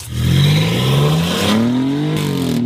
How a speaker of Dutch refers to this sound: Kijk, dat klinkt lekker. Dit is de 2,9 eh, liter biturbo V6 motor van de Alfa Romeo Giulia GTA en de GTM. Mhm. Ook bekend uit de Ferrari. Ja, inderdaad.